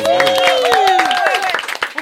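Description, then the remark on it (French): An audience breaks into applause, a dense patter of many hands clapping, while voices ring out over it in rising and falling tones before the clapping thins toward the end. “On peut nous applaudir dire.”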